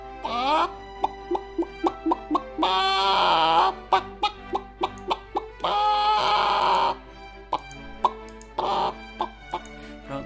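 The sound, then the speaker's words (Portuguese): A chicken clucks in a steady run of short clucks, broken up by a few longer, drawn-out squawking calls. It is fairly loud and heard on its own. “Tive uma participação de uma galinha.”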